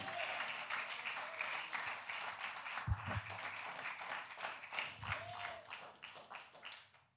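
A crowd applauds steadily with dense, continuous clapping, joined by a few scattered cheers and louder thumps, before the applause tapers off at the end.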